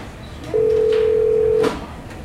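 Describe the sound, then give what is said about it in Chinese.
A telephone ringing tone from a call that goes unanswered: one steady, mid-pitched electronic beep holding for about a second over a faint background hiss, then cutting off. No one speaks. “我得打电话问问他。”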